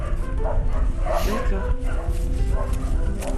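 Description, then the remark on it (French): A truffle dog yips and barks several times in quick, uneven bursts over a steady rumbling background, with some human voices mixed in. “Mais le chien marche bien, donc il faut laisser le, le chien.”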